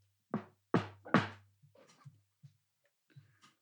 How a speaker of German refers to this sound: Pock, pock macht es an der Tür.